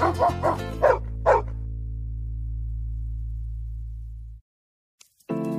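Several quick, loud dog barks in a burst over the first second and a half, then a low sustained tone that fades out, followed by a short burst of music at the end.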